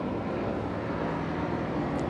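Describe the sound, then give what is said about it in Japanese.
A helicopter drones overhead, a steady, fairly loud low rumble that fills the whole moment without fading, with no one speaking over it. “そうですねヘリコプターがヘリコプターはい”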